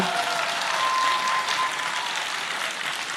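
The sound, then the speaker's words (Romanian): Steady applause from an audience in Iași, clapping for the girls, a dense crackle of many hands clapping at once that holds at an even, fairly loud level for a few seconds. “Aplauze pentru fete.”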